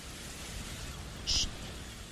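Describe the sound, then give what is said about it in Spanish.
A steady, fairly quiet wash of sea noise with a low rumbling roar underneath, broken by one brief high-pitched chirp midway through. No one speaks. “En exclusiva, el ruido del mar.”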